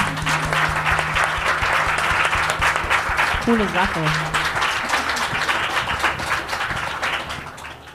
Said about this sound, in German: Ich finde, da kann man schon mal klatschen, oder? Für so viel Engagement.